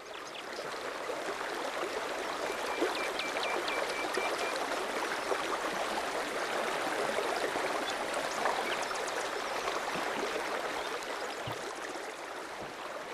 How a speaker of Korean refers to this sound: 한적한 강가 강물 흐르는 소리가 들립니다.